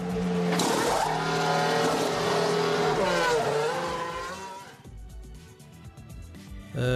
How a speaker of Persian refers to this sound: نمیدونم صدای ماشین بود و احتمالا مربوط به صداهای روتین پیست نبود دیگه چون اگر بود فکر کنم روش مانور خاصی نمیدادی دقیقا نه مال پیست نبود